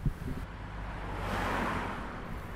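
The first bus of the morning passes on the street at five o'clock, its low engine drone steady beneath a broad whoosh that swells to a peak midway and then fades, with no voices present.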